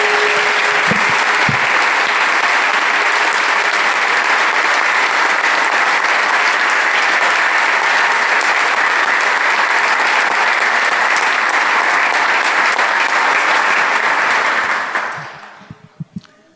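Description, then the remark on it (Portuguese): A church group applauds Jesus in honour of a church member celebrating his 75th birthday, loudly and steadily for about fifteen seconds, a dense wash of clapping that fades out quickly at the end, leaving a few scattered claps. “Vamos aplaudir a Jesus que nele está.”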